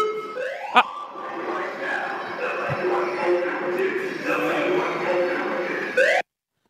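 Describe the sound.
A gym fire alarm blares continuously, its rising electronic tone repeating under an automated evacuation announcement voice, then cutting off abruptly.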